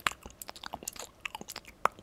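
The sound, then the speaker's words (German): A person imitates wet, smacking chewing noises in ASMR style, a quick run of clicky mouth smacks and lip pops over about two seconds, ending on one sharper pop. “so schmatzen.”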